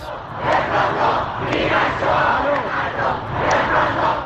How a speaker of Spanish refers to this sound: Luego de que reconociera que uno de sus misiles tumbó por error un avión ucraniano, sectores de la población se han lanzado a las calles a protestar por el engaño inicial. Hay quienes piden a gritos un referéndum para alcanzar más libertades.